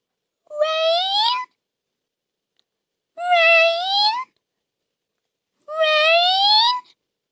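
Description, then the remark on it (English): A voice imitating a locust's feeble song sung up to the rain god: three short, thin, rising sung notes, each about a second long, separated by pauses of silence, moderately quiet. “As you can hear, it wasn't a very good song, and it wasn't a very loud song.”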